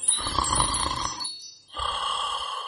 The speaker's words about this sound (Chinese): 此时，盘古正一边打呼噜，一边嘟嘟囔囔的说着梦话。